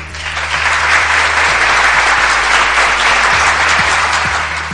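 Steady, dense applause from a sizable crowd fills the whole stretch, loud, with many hands clapping at once and no talking over it.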